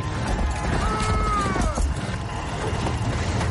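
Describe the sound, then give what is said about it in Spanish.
Galloping horse hooves of a rider pursuing a running man pound steadily through a loud, dense wash of battle noise, with a brief high whinny rising and falling partway through. “Bron se levanta y corre perseguido por el jinete.”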